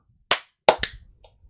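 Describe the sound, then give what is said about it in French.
Sharp hand claps, made for syncing after a spoken count of 3, 2, 1, clap, ring out on their own: three crisp, loud smacks, the first alone and the last two in quick succession, followed by faint rustling. “Et donc on fait clap au, moment où tu dis clap euh, Voilà, bah au moment où je dis clap, c'est là où on claque des mains normalement.”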